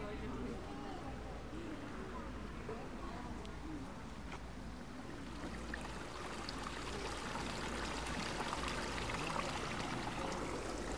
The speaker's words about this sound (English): But as you hear, there's also real water in this Japanese garden. Lots of real water. And this sound of streaming water gives us a feeling of freshness.